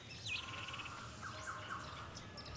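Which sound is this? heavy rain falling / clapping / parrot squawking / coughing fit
parrot squawking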